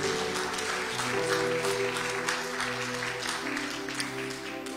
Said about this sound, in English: Somebody give the Lord a hand clap of praise in the house today.